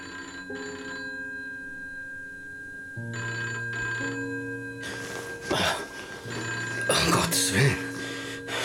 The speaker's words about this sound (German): 6 Uhr. Er ruft so früh am Morgen an. Nimm schon ab